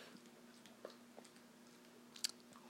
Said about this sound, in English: Sorry, that is the dog chewing on a rubber piece of what she just bit off of this toy.